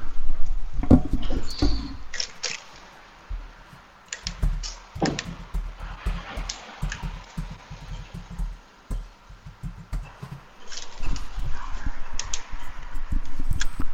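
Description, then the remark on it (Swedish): Typing on a keyboard, a steady but irregular patter of keystrokes with occasional sharper mouse clicks as a word is typed and then Replace All is clicked, continuing for several seconds with no one speaking. “Och nu har jag skrivit det ordet och sen klickar jag var finns en här Replace All längst ner till höger.”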